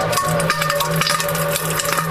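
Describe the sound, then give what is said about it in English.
A bathroom vent fan, switched on with the room's light, runs with a steady, even whir, a low hum and a thinner higher tone held throughout under broad airy hiss. No voices, and the level barely changes. “That's probably the vent going on because, you know, like when you start, yeah. when you turn the light on in the room.”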